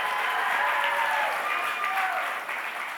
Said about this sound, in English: Man, you got a bigger cheer than Jesus himself on the resurrection Sunday.